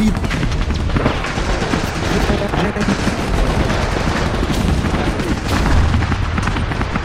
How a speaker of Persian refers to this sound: پس جنگ جنگ تا پیروزی ادامه داشت وسط اون جنگ تو مدرسه وسط اون همه صدای تیر و بهبهه